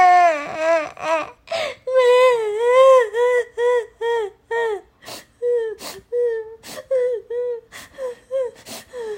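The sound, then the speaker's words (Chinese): A voice imitates Betty, a character in a story being told, crying loudly: wavering, high-pitched wails that break into a rhythmic run of short sobbing bursts, punctuated by sharp gasping breaths, with no words spoken. “突然，贝蒂哭了。”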